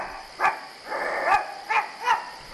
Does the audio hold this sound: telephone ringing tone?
no